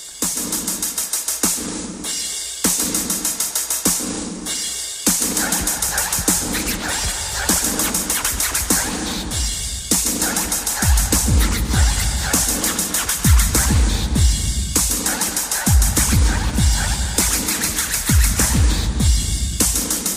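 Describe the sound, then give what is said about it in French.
An old-school rap track from 1987 plays: a loud, steady hip-hop beat with booming bass kicks, hissy cymbals and turntable scratching, with no vocals yet over the instrumental groove. “ce qui est sûr, c'est que le beat, il est à l'ancienne, les lyrics, ils sont incroyables,”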